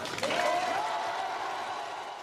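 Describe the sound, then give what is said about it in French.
A round of applause from a crowd for football supporters, a steady, dense patter of clapping that holds for a couple of seconds, with a thin whistle rising briefly over it near the start. “une bonne moitié de chômeurs économiquement faibles, de gens qui ne peuvent même pas payer l'impôt et qui trouvent le moyen pourtant de traverser la France pour aller soutenir leurs joueurs, pour eux, ayons une salve d'applaudissements.”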